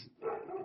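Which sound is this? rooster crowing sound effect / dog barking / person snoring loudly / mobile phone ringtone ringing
dog barking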